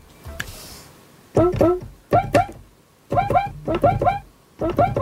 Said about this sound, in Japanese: そう、今これね、鍵盤にクイカの音をね、一つずつこう配置したんですけど、だこれで、みたいな感じのグルーヴね、聞いたことありますよね。